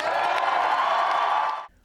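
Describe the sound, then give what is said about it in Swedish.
A large crowd shouts and cheers together in a loud, sustained roar, chanting "No ceasefire", that holds steady for over a second and a half, then cuts off abruptly. “Och eh, det intressanta här det var ju också att de ropade från publiken då “No ceasefire”, alltså ingen vapenvila med Hamas.”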